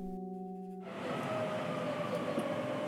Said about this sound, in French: Je me rends à Tourcoing près de Lille, alors je ne résiste pas à vous mettre les ambiances de mon métro préféré pour commencer cet épisode.